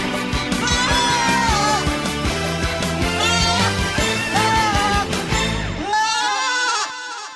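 Loud goat bleating fills the whole stretch, several wavering, nasal cries overlapping one another almost without pause, strong before a final bleat trails off at the end.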